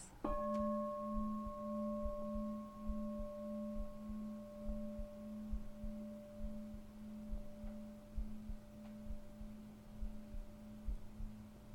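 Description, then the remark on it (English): A single meditation bell is struck once and rings on with a long, steady, shimmering tone that slowly fades over many seconds, heard alone against a quiet background. “Richness of sounds, like the bell. If you've listened to the bell at the end of a sitting, so much happens.”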